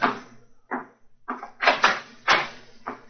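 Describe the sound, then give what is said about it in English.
A door being opened by Mrs. Hudson to a visitor, heard as a run of short wooden clunks and rattles, about five in quick uneven succession, moderately loud, with no voices. “Mrs. Hudson's opening the door to him now.”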